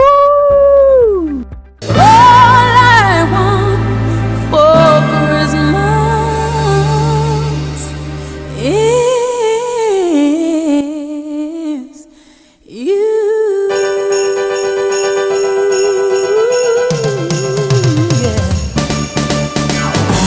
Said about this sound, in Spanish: Os pongo un villancico. Eh... ¿Qué villancicos voy a poner, por favor? Pues el mítico, el de cada año.